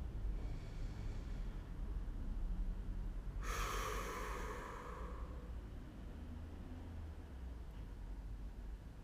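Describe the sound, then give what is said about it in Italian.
After a faint inhale, a person lets out a single forceful, breathy exhale, pushing out all the air, then it fades into a quiet, steady low hum. No one speaks. “puoi sentire la necessità di fare qualche respiro più profondo e allora inizia ad accentuare il respiro. E butta fuori tutta l'aria.”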